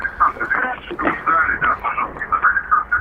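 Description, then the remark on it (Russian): A caller's radio plays the broadcast back through a phone line, thin and tinny, with a voice talking steadily throughout and a faint echoing, doubled quality to the sound. “Ага, приемничек только потише сделайте, чтобы нас эхо не было в ушах.”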